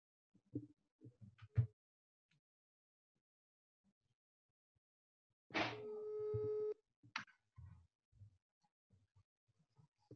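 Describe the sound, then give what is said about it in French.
A single ringback tone from an outgoing phone call made live on Radio Yaniv to a former Châteloup participant: one steady, buzzy electronic ring lasting about a second, with brief murmured voice sounds before and after it. “On l'appelle de suite parce que je crois qu'elle veut nous raconter son Châteloup à elle.”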